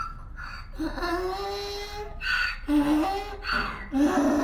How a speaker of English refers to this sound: You might think all donkeys sound the same, but Lola could pick out the sound of Don Pedro's voice in a room of a hundred donkeys. That was definitely her burro.